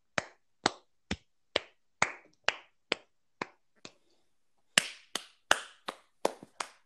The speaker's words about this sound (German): Oder das hat einfach Applaus verdient. Ayo. War ein Applaus.